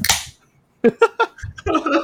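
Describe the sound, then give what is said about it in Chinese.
A beer bottle is cracked open with a sharp, hissing burst of fizz at the start, followed by short rhythmic bursts of laughter and voices chattering. “我觉得我最近好累哦，所以我必须要开一瓶啤酒。”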